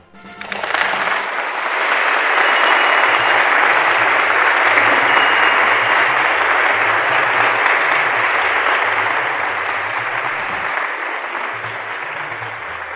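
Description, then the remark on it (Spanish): A crowd applauds steadily for about thirteen seconds, a dense wash of clapping that swells quickly and holds loud before easing slightly at the end, with faint low tones underneath. “Aplausos, por favor.”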